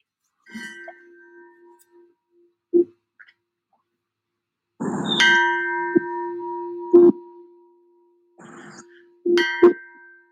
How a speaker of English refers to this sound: why don't we end the session with the Tibetan bell? How about that?